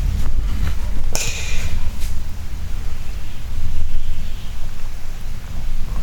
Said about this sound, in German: Ja, ein schönes Gewitterchen. Schönes Gewitter.